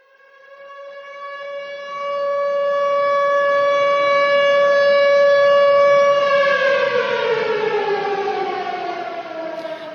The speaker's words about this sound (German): Also das ist ganz klar, das geht einem durch Mark und Bein, das ist eine Sirene, ein Bombenalarm.